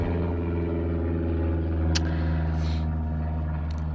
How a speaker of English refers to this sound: Oh, airplane just flying over me.